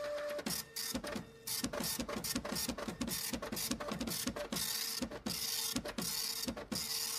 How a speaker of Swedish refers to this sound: Nu kommer det, nu kommer det nyheter här i teleprintern. Nu ska vi se. Det är Formula Drift-nyheter faktiskt som kommer in här i sista sekunden.